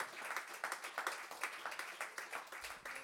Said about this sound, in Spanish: Dios nos lo bendiga, aleluya. déle ese fuerte aplauso al Señor que Él se lo merece, aleluya.